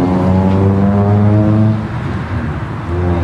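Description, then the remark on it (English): A loud car roars past on a road, its engine a steady low drone with a slight pitch change as it passes, briefly dipping before the rumble swells again. “Is every noisy car going by us just because we're sitting out here doing this?”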